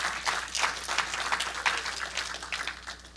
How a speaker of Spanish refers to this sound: Dale un aplauso fuerte a nuestro Dios.